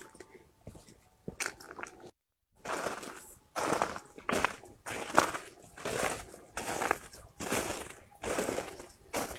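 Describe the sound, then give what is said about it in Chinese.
Footsteps on a concrete path: about nine steady, gritty crunching steps at an even walking pace, each a short scraping crunch, preceded by a few faint scuffs and a brief pause. No voices. “这是我走在水泥路上的声音。”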